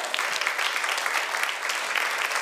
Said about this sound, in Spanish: Ten un aplauso al Señor, vamos.